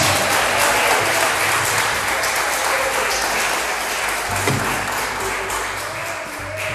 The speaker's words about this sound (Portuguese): Ele quer celebrar com você com alegria. Aplauda ele com alegria nessa noite.